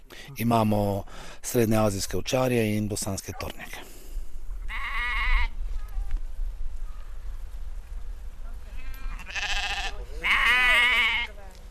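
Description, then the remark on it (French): Sheep and goats bleat repeatedly, a burst of loud, wavering calls at the start, then scattered bleats from a flock of about 120–130 adult sheep with lambs and 15 goats with kids, over a low, steady outdoor rumble. “J'ai environ 120, 130 moutons adultes, plus les agneaux, 15 chèvres, plus les chevreaux, et 9 chiens de protection contre les grands carnivores.”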